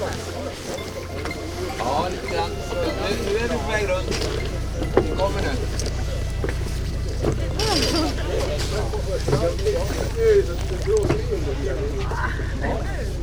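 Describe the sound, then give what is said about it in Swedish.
A sailboat under sail on the open water of Jungfrufjärden, a steady low rush of wind and water running beneath the whole stretch while several people talk and call out. “och efter en natt i Napoleonsviken just öster om Tyresö satte vi segel när vi nådde Jungfrufjärdens öppna vatten.”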